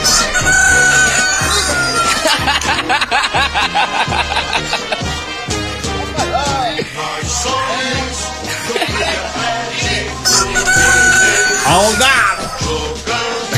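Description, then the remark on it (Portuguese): A rooster crows and clucks again and again, loud, over a dense, busy backing with a steady thumping low beat that runs the whole time. “O galinho. O áudio, né? Costa Filho mandou o áudio aqui”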